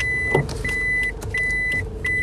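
A car maneuvers slowly into a parking space, the driver mistakenly trying to park in the space next to the intended one, its low engine rumble steady beneath four evenly spaced electronic beeps from a parking sensor, with no one talking.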